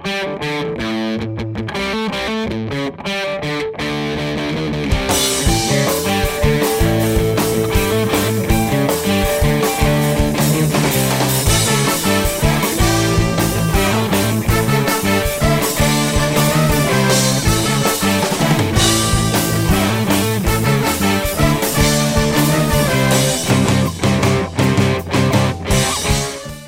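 A loud, distorted music track with driving guitars and steady rhythmic beats; a sparser, quieter opening for about five seconds, then it kicks in fully and stays dense until the end.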